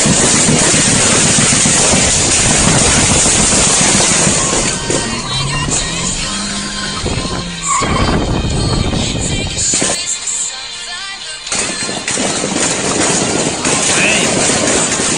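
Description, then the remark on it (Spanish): A car engine revs and accelerates, its pitch climbing over a loud, steady roar of road and wind noise, with a brief lull partway through before the rumble returns, as the driver speeds away while being shot at and reporting a shootout. “que le tiran a él, él va reportando y él acelera a su coche, ahorita van a escuchar, y bueno, sigue reportando, pero va muy tranquilo reportando y de repente vienen las detonaciones”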